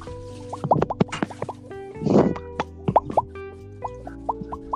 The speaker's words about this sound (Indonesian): Woi, gue sambil nyuci piring tahu. Kedengeran gak? Iya kecil banget. Kecil.